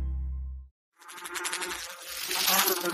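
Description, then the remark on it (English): A low hum cuts off into a short silence, then an insistent buzz of a flying insect rises and wavers as if circling, growing louder toward the end. “Don't let one bug become an infestation in your home.”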